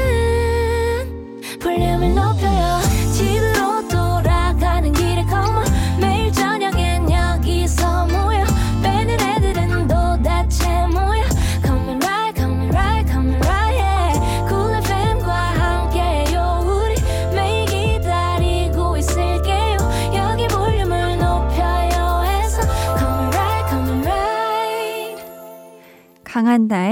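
A loud, upbeat pop song plays throughout with a steady beat, punchy bass and sung vocals, briefly cutting out at a few moments before fading near the end.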